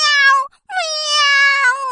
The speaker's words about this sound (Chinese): 巨兽猫哇哇乱叫， 喵喵